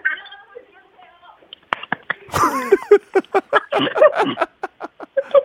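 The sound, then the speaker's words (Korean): A pigeon's wings clap in a rapid, loud burst of flaps as it takes off, the beats continuing in a quick rhythmic train, with some soft tonal sounds just before. “네, 그 다음에 죄송한데, 마지막에 죄송한데 비둘기 날아갈 때 다시 한번 날아갈 때.”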